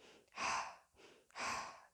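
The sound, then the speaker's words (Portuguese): Two slow, deep circular breaths during a meditation practice, each a soft airy whoosh lasting about half a second, separated by a brief pause, with no talking. “E nessa forma do infinito, Vamos respirar circularmente”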